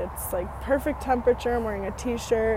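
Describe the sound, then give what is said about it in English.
A person talks, recording on a phone outdoors in nature, while a steady, low rumble of car traffic carries on faintly in the background underneath the voice. “now, I'm recording on my phone out in nature and with background car noises.”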